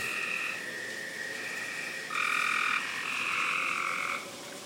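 A dense chorus of frogs croaking loudly and continuously, overlapping calls forming a steady buzzing wall of sound that swells louder midway, with no voices present.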